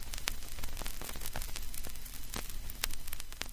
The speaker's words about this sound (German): wegen diesem leichten Rauschen und Kratzen liebt Chalice die Musik von der Schallplatte